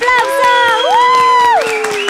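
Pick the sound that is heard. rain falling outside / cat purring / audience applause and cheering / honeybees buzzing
audience applause and cheering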